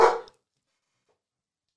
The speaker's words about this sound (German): Da bellen die Hunde mal wild ja. rum. Die glauben das auch nicht, was du hier erzählst.